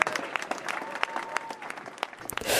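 An audience applauds steadily, a dense patter of many hands clapping with a few sharper individual claps standing out, swelling into a brighter, louder wash at the very end.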